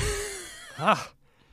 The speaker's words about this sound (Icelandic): Sorry krakkara, ég er að gespa svo mikið